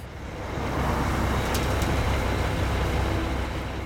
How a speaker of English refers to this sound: Just outside Jahn's office, construction workers are pouring concrete as part of a road project. Forbes ranks Denver one of the fastest growing cities in the country, and traffic can be a total mess.